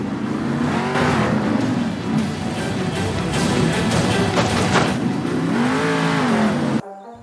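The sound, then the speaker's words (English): A monster truck engine in the Monster Jam video game roars loud, its pitch climbing and dropping in repeated revving surges with no voices, then cutting off abruptly just before the end. “Monster Jam University and you are taught by your fellow driver how to race a monster truck fast, turn it on a dime, get some destruction in, win some cool style points with your truck, and flip to your heart's content.”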